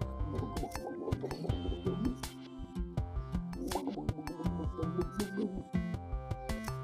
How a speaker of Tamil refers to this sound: கொஞ்ச நேரம் கழிச்சு வீட்டு திண்ணையில இருந்த பானையில தண்ணியை மோந்து